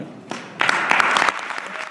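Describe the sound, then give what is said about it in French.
Quebec legislators applaud steadily as Finance Minister Éric Girard presents the Legault government's first budget on March 21, a dense patter of many hands clapping that swells after a moment and stays loud, with a few sharper claps standing out. “C'est sous une pluie d'applaudissements venus de ses collègues que le ministre des Finances du Québec, Éric Girard, a présenté, le 21 mars dernier, le premier budget du gouvernement Legault.”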